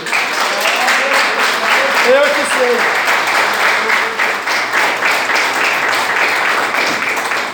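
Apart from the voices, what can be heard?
church audience applause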